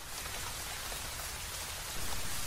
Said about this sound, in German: Wir betreten also die heiligen Hallen und kommen durch das erste Tor in einen runden Innenhof mit so einer Art Denkmal in der Mitte. Es regnet noch immer.